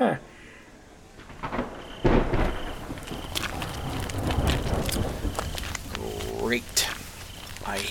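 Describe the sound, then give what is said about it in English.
Steady rain hisses throughout while a low, distant rumble of thunder rolls underneath, with a few bumps and a voice briefly audible. “hate rain. Could you share with me so that I don't get wet?”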